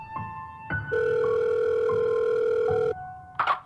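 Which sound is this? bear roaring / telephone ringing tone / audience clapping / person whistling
telephone ringing tone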